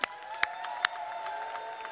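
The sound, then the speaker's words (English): A crowd applauds and cheers for the 12D cheerleading squad in a steady wash of noise, with a few sharp, louder claps standing out near the start. “So let's give it to 12D. Let's give it up.”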